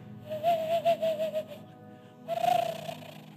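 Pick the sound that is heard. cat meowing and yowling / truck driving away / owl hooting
owl hooting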